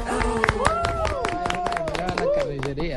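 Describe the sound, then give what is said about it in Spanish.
A crowd applauds with dense, uneven clapping throughout, while voices call out and cheer over the claps, welcoming a joke teller from Envigado at the Festival Internacional del Humor, for Blue Radio. “El aplauso para él.”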